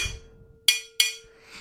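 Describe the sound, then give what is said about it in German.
Two sharp, bright, clear taps of a plastic spoon on a lid, followed by a softer scraping tap, with a faint steady hum underneath. “mit einem Plastiklöffel auf das, auf den Deckel.”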